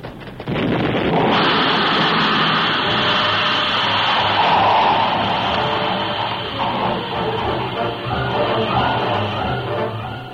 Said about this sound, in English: As the turtleback disintegrated in a terrific burst of steam and scalding water,